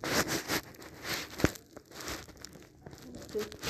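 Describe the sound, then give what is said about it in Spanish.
Paper rustles and crinkles in quick, irregular bursts, moderately loud, with one sharper crackle partway through as sheets are shuffled and handled while someone searches through papers. “No, en los papeles que me diste no venía.”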